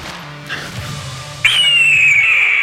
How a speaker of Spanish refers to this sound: Y el grito del águila.